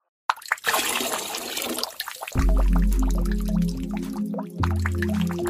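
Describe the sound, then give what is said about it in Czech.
Wet sloshing and squishing as grains soaked in water are handled, with small clicks and splashes, followed by a steady low hum beneath the watery movement. No one speaks. “Jsem tady sama, a jsou perhločky namočené ve vodě. Je to fakt nechutný.”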